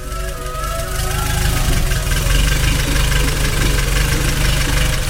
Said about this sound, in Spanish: Así sonaba el sonido de todo un mítico, el Seitas, el 600.